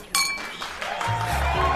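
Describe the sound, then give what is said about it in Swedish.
Glasses clink together in a toast, a bright ringing chime with lingering tones, followed by low murmuring voices. “Skål för 17 år av vänskap!”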